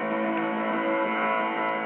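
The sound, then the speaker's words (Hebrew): A sustained orchestral drum roll opening Grieg's Piano Concerto in A minor, performed by Arthur Rubinstein, holds at a steady, even level for about two seconds, a continuous rumbling swell with no piano yet and no voices. “מתחיל באיזה דרדור תופים, ואז כניסה דרמטית של הפסנתר, נשמע ככה.”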